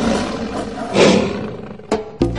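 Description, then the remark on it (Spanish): A lion roars in an advertisement for Fitson Gym, a deep, rumbling growl that swells to a loud peak, followed by two shorter, sharp grunting bursts near the end. No one speaks. “Osados como leones.”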